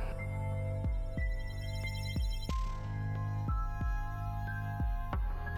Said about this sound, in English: This old engine is still trucking along. Can't you hear it? Listen.